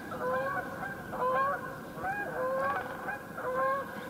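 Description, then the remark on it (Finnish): A flock of Canada geese in flight, probably coming from Pitkäjärvi, honks repeatedly overhead, overlapping nasal calls in an uneven rhythm of bursts, fairly loud against a steady low background rumble, with no talking. “Vai vaiko kanadalaisia? Joo, se kanadalaisia.”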